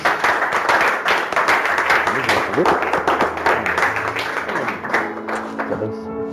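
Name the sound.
audience applauding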